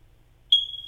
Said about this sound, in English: That is, that is sound of a of a house alarm running out of batteries